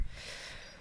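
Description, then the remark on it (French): A fridge door is closed after food is taken out, with a soft, muffled thump at the very start, followed by a brief breathy whoosh of air. The sound is quiet, with no talking. “Donc euh, voilà, le bruit de la porte, on le referme”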